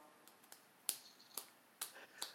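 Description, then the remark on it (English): A single person claps slowly and unevenly, a few sharp, crisp claps with a couple of softer ones between them, otherwise quiet, with no talking. “This is the longest standing ovation you've ever done”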